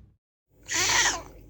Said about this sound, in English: That was my cat Lola.